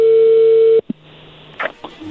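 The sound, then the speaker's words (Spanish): A steady, mid-pitched telephone line tone as a phone call connects holds loudly for under a second, then cuts off with a click, leaving faint line hiss and a couple of brief muffled blips. “A ver, ya entré la llamada, no hagan ruido.”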